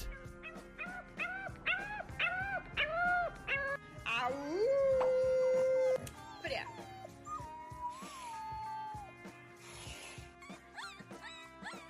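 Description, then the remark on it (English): A small dog lets out a string of high, squeaky yelps that rise into a drawn-out, wavering howl, then trails off into softer whimpers, fairly loud. “A little squeaky, like that. That's cute as fuck.”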